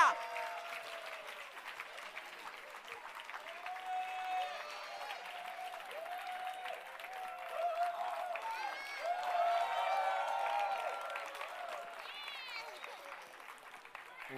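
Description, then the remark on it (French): An audience applauds steadily and very loudly for about fourteen seconds to welcome a guest, dense clapping swelling slightly midway, with excited voices and cheers mixed into the crowd noise. “On l'applaudit très fort, sinon il ne vient pas.”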